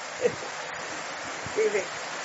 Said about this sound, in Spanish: si escuchan gotas, está nuevamente lloviendo.